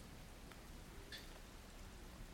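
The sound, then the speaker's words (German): A steady, soft hiss of stormy, slightly thundery rain fills the background, faint and continuous, with one brief sharp drip or tap partway through and no voices. “Es ist stürmischer Regen und tatsächlich auch ein bisschen gewitterig.”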